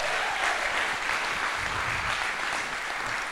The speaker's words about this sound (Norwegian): Skal vi gi en varm applaus til David og gjengen?